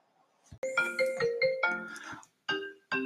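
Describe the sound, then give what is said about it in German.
A telephone rings with a bright electronic melodic tone, a longer phrase followed by two short bursts with brief gaps, loud, no voices. “Und da klingelt auch schon das Telefon.”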